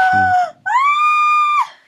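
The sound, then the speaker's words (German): A person lets out two loud, high-pitched excited screams, a short one dipping in pitch, then a longer sustained squeal that ends abruptly. “Oh Gott, ich habe vorgeschrien, hab mich selber bei dir gehört.”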